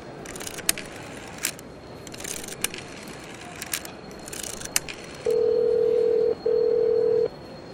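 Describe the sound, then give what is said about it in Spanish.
A series of scattered clicks and taps as a phone number is dialed to call a son, followed by two long, steady ringing tones on the line. No one speaks. “le voy a hablar a Manuel, mi hijo. Ahí hay un teléfono.”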